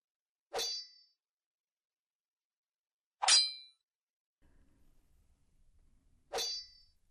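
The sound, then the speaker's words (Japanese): Three sharp, ringing metallic strikes of a hammer on a chisel against strangely patterned marble in a workshop, spaced a few seconds apart, with faint low rumbling between the last two blows. “硬いものがぶつかり合う音に興味をそそられて中に入ると男が不思議な模様の大理石にハンマーでのみを叩きつけていた”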